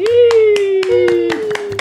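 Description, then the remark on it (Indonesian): Around seven sharp hand claps, loud and irregularly spaced, ring out over a steady, sustained voice-like tone that holds one pitch throughout. “Uh, tepuk tangan teman.”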